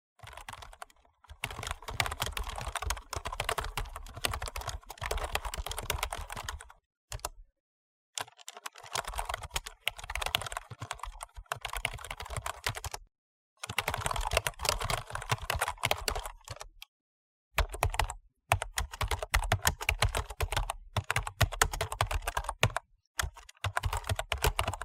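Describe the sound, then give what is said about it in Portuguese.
Rapid, continuous typing on a computer keyboard, fairly loud, with dense clattering keystrokes broken by a few short pauses. No voices. “uma letra, um toque, um barulho irritante. Trocar de teclado exige uma reeducação do corpo que nem sempre estamos dispostos ou conseguimos de modo rápido.”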